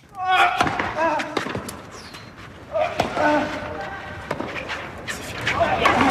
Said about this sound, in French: Et vous entendez le, Serbe faire rebondir sa balle avant de servir, avant de servir pour le match.